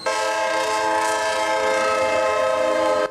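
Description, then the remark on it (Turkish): A train horn blares loudly and steadily for the whole stretch, a sustained multi-tone chord over the low rumble of a train on the Eskişehir-Konya route approaching a level crossing with its barrier closed, in Çobanlar, Afyonkarahisar, Turkey, in the morning. “Hem zemin geçitte bariyer kapalıydı. Tren yaklaşıyordu.”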